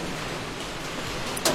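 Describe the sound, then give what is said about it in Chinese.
Steady rainfall in Shenzhen makes a dense, even hiss across the whole clip, with one brief, sharper splash or tap near the end. No voices are heard. “好，接下来时间的话，让大家好好的来聆听一下这里的雨声，这深圳的雨声。”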